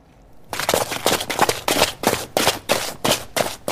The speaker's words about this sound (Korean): 병사 여러 명이 발 맞춰 뛰는 소리입니다. 오늘 보물 소리예요. 이 소리가 보물소리고요.